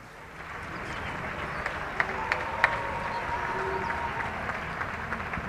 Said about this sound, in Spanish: Fuerte el aplauso para los dos, por favor.